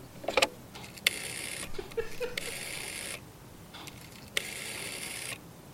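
household object, dialing a phone number

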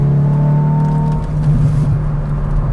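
vehicle, sports car exhaust burble

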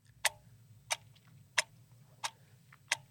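sound effect, ticking clock sound effect

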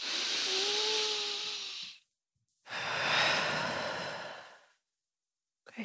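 human body sound, deep breathing exercise

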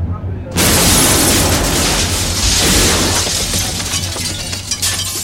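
sound effect, bomb explosion sound effect

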